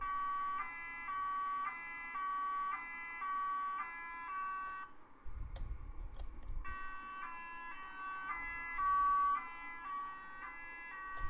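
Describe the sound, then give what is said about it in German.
A vehicle horn switched to a fanfare setting plays a loud repeating two-tone melody in quick alternating bursts, pauses briefly amid low rumbling, then resumes the same bright, insistent pattern. “Aber man kann dann auch eine Fanfare anmachen, dann klingt so.”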